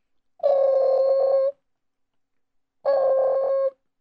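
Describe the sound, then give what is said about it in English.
Two buzzy, steady ringback tones of a phone line ringing, each about a second long, separated by a pause of silence, heard clearly through the receiver with no one talking. “Okay, uh, it's ringing.”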